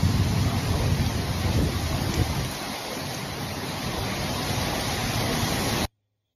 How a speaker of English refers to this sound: they had winds of up to 80 miles an hour here at the Tomb of the Unknown Soldier